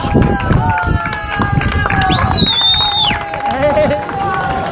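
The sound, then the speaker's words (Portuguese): A lively outdoor crowd at the finish line of an ultra trail race in the Serra da Arga, with overlapping voices, scattered clapping and cheering, and a high whistle-like tone sweeping above the steady hubbub. “Quase nove horas e meia depois da partida, de intermináveis subidas e de descidas desafiantes, o som da meta de um objetivo cumprido.”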